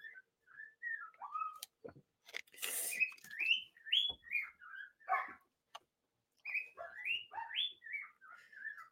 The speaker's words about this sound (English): I've got the doors open for the birds.